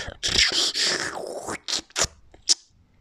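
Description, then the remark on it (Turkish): A voice imitates a pump-action water canteen, worked like a water-jug pump, with its own cup on top and a tap in front, filling the cup: a long gurgling, hissing stretch followed by a few short squeaky bursts, fairly loud with no other sounds. “damacana pompası gibi ve hatta aynı renk ve materyalde, aynı sistemde emme basma pompa şeklinde, üzerinde kendi bardağı olan, önünde çeşmesi, oradan bardağını doldururken de”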